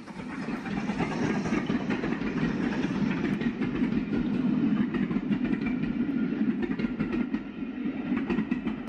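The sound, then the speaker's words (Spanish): Train wheels clatter steadily over the rails in a continuous rhythmic rumble, fairly loud, with faint repeated clicks running through the whole stretch and no voices. “Nuestra historia sonora tiene que ver con ruedas, las del tren, por supuesto, pero también otros, otro tipo de ruedas.”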